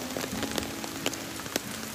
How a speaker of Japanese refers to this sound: こういう雨の時にはしないとか、まあ、そもそもは台風の時は出ない方がいいでもあるけれども